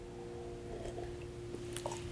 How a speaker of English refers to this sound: that's why I have some type of liquid here, and I'm gonna take a sip from my liquid to keep my, my vocal cords lubricated.